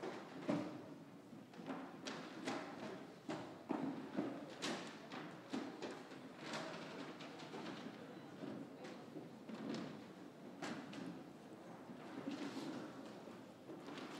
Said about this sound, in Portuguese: Pode empurrar as cadeiras.